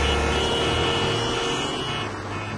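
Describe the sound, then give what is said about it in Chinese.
A car engine rumbles steadily with a low hum and broad road noise, easing slightly toward the end as the car is started and driven onward under a clear sky. No voices. “黄潇发动汽车，继续向前行驶。”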